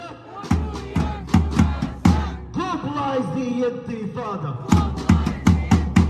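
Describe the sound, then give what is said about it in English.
A pro-Hamas rally crowd in Staten Island, New York City, chants a slogan together, loud rhythmic syllables landing on a steady beat about twice a second, with a longer drawn-out chanted phrase in the middle before the beat returns. “Meanwhile, here is footage of a pro Hamas rally yesterday in Staten Island.”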